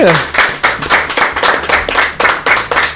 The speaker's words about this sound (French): On peut applaudir notre invité